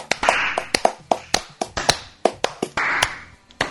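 Hands clap in a quick, uneven series of sharp, bright claps, some overlapping, with a brief burst of louder, denser clapping partway through and again near the end. No one speaks.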